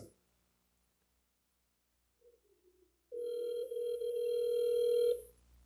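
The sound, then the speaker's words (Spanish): A phone call on speakerphone rings out unanswered: one steady, buzzing ringback tone lasting about two seconds, preceded by a brief faint murmur and otherwise near silence. “ahorita márcale y te paso el teléfono para que se escuche”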